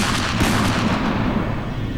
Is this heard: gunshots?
yes